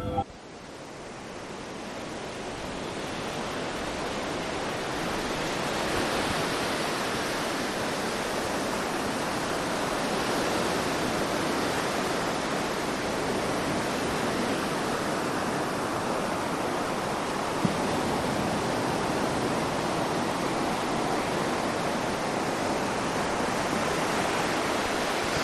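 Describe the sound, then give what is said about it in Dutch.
A steady, broad wash of sea surf at Scheveningen fills the scene, waves rolling and breaking continuously at a constant loudness with no distinct individual crashes standing out. “Hij duwde zijn hoed aan en liep de trap af naar de zee.”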